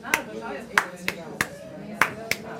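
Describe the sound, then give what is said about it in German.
Hands tap out a short, uneven syncopated rhythm, showing how someone who cannot hear the difference taps it: seven sharp slaps in under three seconds, grouped in a loose syncopated pattern, with a faint murmur of voice underneath. “Es gibt Leute, die hören überhaupt keinen Unterschied. Die klopfen so,”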